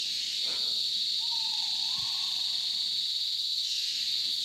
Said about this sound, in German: Und wen höre ich da rufen im Hintergrund? das ist ein Argusfasan, der sein Weibchen anlocken will. Die sieht man nicht, weil die eben sehr scheu sind, aber auf Fotos sehen sie wunderschön aus.